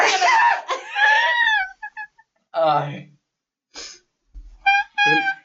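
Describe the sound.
A single loud, abrupt sneeze bursts out at the start, followed by a pained exclamation and scattered high-pitched laughing and squealing voices.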